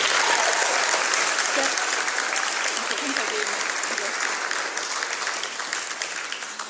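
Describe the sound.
Sustained audience applause, a dense, steady wash of many hands clapping that holds loud for several seconds and eases slightly toward the end, with faint voices mixed in.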